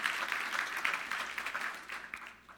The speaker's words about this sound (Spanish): Puedes dar un aplauso si lo entendiste, que es para ti también, no es para mí.